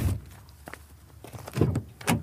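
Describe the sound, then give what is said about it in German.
A Skala car door is opened and then shut as someone moves from the back seat to the front, with a light click followed by two solid thunks a moment apart. No one speaks. “Also Tür auf und ab nach vorne.”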